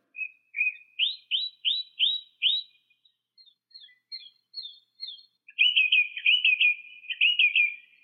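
A Brazilian songbird, 20 to 23.5 cm long, sings a clear, melodious phrase alone: a run of bright rising whistled notes, a softer series of quick chirps, then a rapid warbling trill.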